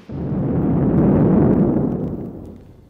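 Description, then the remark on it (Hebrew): Echoes of the British radar station on the heights of Mount Carmel being blown up: a heavy explosion booms and rumbles, a broad low roar that swells for over a second and then slowly fades, echoing. No voices. “לא, אין זה קידוח נפט או פיצוץ סלעים בהרי ירושלים. אלה הם הדי התפוצצות הרדאר האנגלי במרומי הכרמל.”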